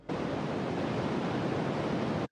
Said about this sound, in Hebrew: רעש לבן בגדול הוא רעש שבו כל התדרים אה, מנוגנים בו זמנית. זאת אומרת, מהתדר הכי נמוך ועד התדר הכי גבוה, נוצר לנו בעצם רעש לבן. זה נשמע כמו כביש, זה נשמע כמו, אה, כמו ים.